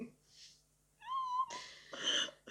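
A cat gives a clear, drawn-out meow, followed by a couple of rougher, breathier cat cries in quick succession.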